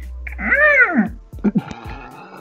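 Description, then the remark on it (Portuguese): A person imitates a cat with one drawn-out meow that rises and falls in pitch, close and fairly loud, followed by a couple of short, clipped vocal sounds. “Caralho, gata essa porra. Qual é, Outro gato.”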